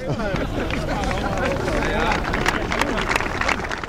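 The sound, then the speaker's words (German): A crowd at the Dietenbach site in Freiburg, where a large new housing development is being built, murmurs and chatters after the Federal Chancellor takes up the spade, while scattered claps break out, growing into a light, uneven patter of applause toward the end. “Heute der Applaus in den kommenden Jahren viele Bagger auf dem Freiburger Gelände Dietenbach, wo eines der größten Wohn-Neubaugebiete der Republik entsteht.”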